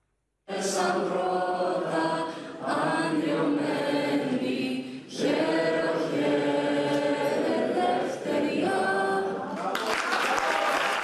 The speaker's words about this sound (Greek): Με την ανάκρουση του εθνικού ύμνου και εν μέσω θερμών χειροκροτημάτων υποδέχθηκαν τον Πρωθυπουργό σε μια κατάμεστη αίθουσα εκπρόσωποι ελληνοαμερικανικών οργανώσεων στο δείπνο που παρέθεσαν προς τιμήν του στην Ουάσιγκτον